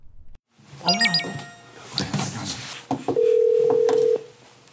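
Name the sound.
telephone dialing tones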